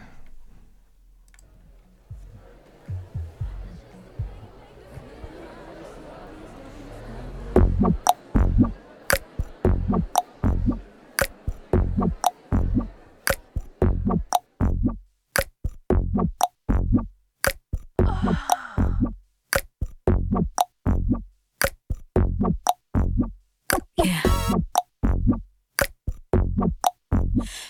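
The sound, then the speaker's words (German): A funky pop track with a punchy, steady beat: after a soft, hazy opening, crisp percussive hits drive a tight groove that stays loud and upfront, with no voices. “Es erinnert mich an …. Es ist ähm, funky und es hat einen sehr leibenden Rhythmus”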